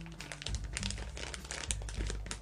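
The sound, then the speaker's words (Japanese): Continuous crinkly rustling of a plastic zipper bag holding embroidery thread, handled while getting out more thread for stitching a hemp-leaf (asanoha) pattern, with irregular bursts of crackling throughout and no voices. “あの糸はあの私一つ一つチャック袋に入れておりましてなのでガサガサするかと思います”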